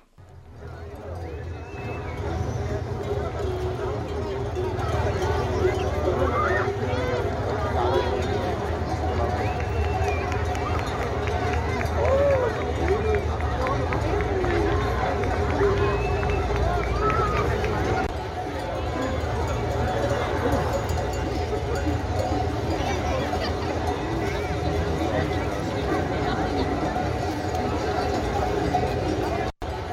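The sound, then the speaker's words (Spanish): Busy outdoor street ambience in Madrid as a flock of sheep and goats passes during a transhumance livestock festival, with a dense patter of many hooves, steady clanking bells, and crowd voices murmuring, shouting and applauding throughout, loud and continuous. “el reporte de esta festividad de la trashumancia que pasó ayer por Madrid”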